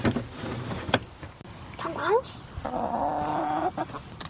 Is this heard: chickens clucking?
yes